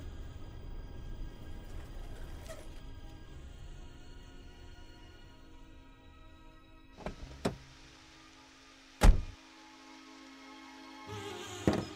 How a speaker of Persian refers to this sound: انگار دارم منم یه چیزایی میشنوم نکنه صدای ماشینه